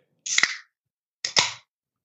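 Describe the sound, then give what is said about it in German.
A can of Steam Brew beer, Lidl's brand, being opened: two quick pops, each followed by a short bright fizzing hiss, about a second apart, moderately loud with no voices. “Ist jetzt äh, spät genug, um, um Bier aufzumachen. Dosenbier? Das klingt Holz gut. Dosenbier.”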